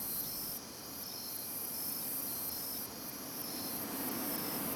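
A dense, unbroken chorus of insects chirping and buzzing fills a night-time jungle in Nicaragua, not far from Managua, at 1 a.m., steady and loud throughout, with a high shimmering trill layered over a soft wash of background hiss.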